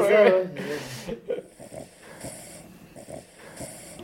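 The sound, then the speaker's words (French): A soft, low purring rumble with rhythmic breathy pulses, quiet, from an animal during an osteopathy treatment of its neck, following a brief louder burst of sound at the start. “Donc là, on l'entend un tout petit peu ronronner.”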